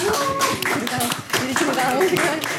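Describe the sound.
A burst of applause, many hands clapping in a dense, steady patter for a couple of seconds while voices talk and cheer over it.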